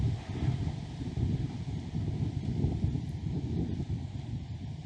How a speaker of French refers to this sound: Il y a du vent aujourd'hui. J'espère que pour vous, le son, ça va.